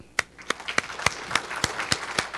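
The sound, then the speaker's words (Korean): An audience applauds the church choir together, with a steady rhythm of sharp, louder claps standing out over a dense bed of scattered clapping, moderately loud and sustained throughout without any talking. “한번 박수 한번 쳐주세요.”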